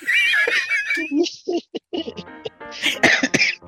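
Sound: coughing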